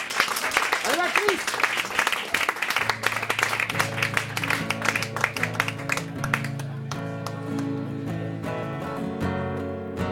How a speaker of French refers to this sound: Avec vos applaudissements.